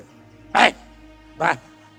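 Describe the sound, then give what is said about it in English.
A dog barks twice, two short, sharp woofs spaced about a second apart, clear over a quiet background hum. “ये डॉग डॉग लुक देखो देखो इतना कुत्ता इतना ब्यूटीफुल है ना”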